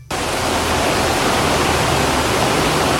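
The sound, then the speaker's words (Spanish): Floodwater from the night before rushes over the main road in Polo, Barahona, roaring loudly and steadily, a dense, unbroken hiss of churning water that holds at the same level for the whole stretch, with no voices. “¿Qué está oyendo eso? Eso es agua.”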